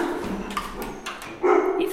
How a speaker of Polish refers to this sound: Słychać też mojego psa, który miałczy. Miałczy, czyli płacze.